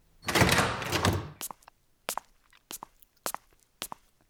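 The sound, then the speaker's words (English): A heavy, antique-looking double door of a building downtown swings open with a long, rough scrape lasting about a second, followed by a steady series of footsteps walking inside, moderately loud, with no talking. “Whoops, this is exactly where the GPS led me to to these here antique looking double doors.”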